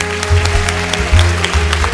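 An audience applauds, a dense, steady wash of many hands clapping with uneven bursts, fairly loud and sustained throughout with no voices over it.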